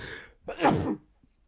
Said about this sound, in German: Ich muss gleich niesen.